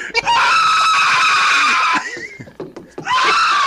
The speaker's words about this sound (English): It would be a scream of terror, though. It would be a scream of pure anger and hate.